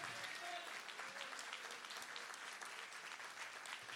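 An audience applauds for Jesus, many hands clapping in a dense, continuous patter that holds an even level for the whole stretch, with a faint voice or two underneath.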